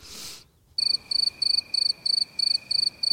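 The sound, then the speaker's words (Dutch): A brief breathy rush opens, then a steady train of crickets chirping starts up, about eight bright, evenly spaced trills over a faint continuous high whine, clear with no talking. “Crickets, crickets. ja, krekels.”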